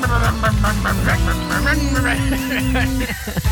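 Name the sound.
horn honking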